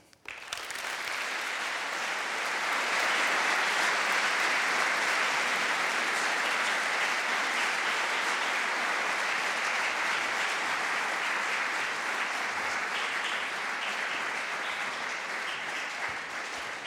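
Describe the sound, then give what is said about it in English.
Sustained audience applause, a dense, steady wash of many hands clapping that builds quickly and holds at a fairly even loudness for about sixteen seconds, with no voices over it, welcoming Professor Wengrow to the stage for a talk. “Wengrow, uh, Professor Wengrow, a big hand of applause.”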